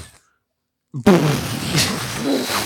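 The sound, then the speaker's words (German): After a short silence, a voice bursts into a loud, breathy explosion imitation, a sudden blast of noise that rumbles and hisses on for over a second. “Ja, Explosion zwar richtig, aber nicht so ganz, ne?”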